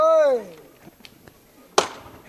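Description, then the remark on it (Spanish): A voice calls out briefly, followed by a few faint taps and then a single sharp, loud wooden knock of the capataz's hammer as men lift a heavy float on a wooden ramp in San Bernardo, with the creak of the lift and quiet crowd sounds around it. “Cómo suena la, la levantada en esta rampa de madera, el crujir del salto”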